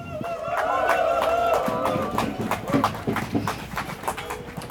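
Scattered, uneven clapping from a crowd at a demonstration, applauding a speaker from the Association of Intersex People Austria; sharp irregular claps building after a stretch of mixed voices and tonal murmuring, with no steady rhythm and moderate loudness throughout.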